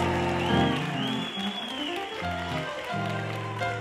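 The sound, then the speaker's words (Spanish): An audience applauds in a steady, dense wash of clapping lasting about four seconds, fairly loud throughout, with low sustained tones humming underneath. “Alguien ayúdeme, haga algo, aplauda.”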